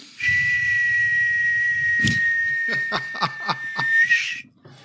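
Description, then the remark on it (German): Someone imitates a whistling 'Heuler' firework rocket with their voice: one long, steady, high-pitched whistle held for about four seconds, with breathy puffs and short bursts toward the end before it stops. “irgendwie mieten als äh, Feuerwerk. Mach doch mal den Heuler, den Heuler eben.”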